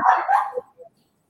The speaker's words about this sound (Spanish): Ya va, que el perro me distrae.